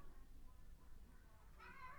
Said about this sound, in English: But, all right, that's my cat crying.